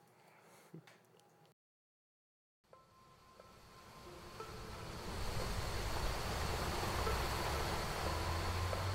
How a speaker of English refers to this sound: Thirty minutes has passed, and a multitude of waves at my feet crash fearlessly.